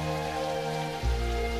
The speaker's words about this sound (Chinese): 雨声淅淅沥沥，新鲜的空气沁人心脾。